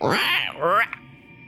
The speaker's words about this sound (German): Ähm, hörst du in der Ferne einen Raben schreien? Mhm.